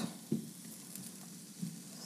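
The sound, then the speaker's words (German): Kohlrabi pieces sizzle steadily in an oiled pan, a continuous crackling hiss, with a few soft knocks and scrapes as the pieces are pushed around with a spatula so each gets a spot on the pan bottom. No one speaks. “Da nehme ich jetzt meinen Pfannenwender und schaue, dass jedes Stück im besten Fall ein Plätzchen am Pfannenboden bekommt.”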